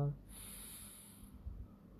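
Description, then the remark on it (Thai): A long, deep diaphragmatic breath drawn in steadily during a breathing exercise, belly expanding, a soft airy rush lasting over a second, fairly quiet, with faint low background hum and no talking. “การหายใจแบบใช้กล้ามเนื้อกระบังลมหลักการหายใจโดยปกติทั่วไป หายใจเข้าท้องป่อง หายใจออกท้องแฟบ โดยทำสามถึงห้าครั้งอ่ะพร้อมกัน”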